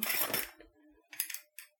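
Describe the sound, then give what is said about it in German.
Metal keys jingle and clink together in a burst of rattling as someone searches for the right key to a padlock, followed by a couple of short, sharp metallic taps, fairly quiet. “Das ist so ein Vorhängeschloss. Da gibt es auch einen Schlüssel dazu.”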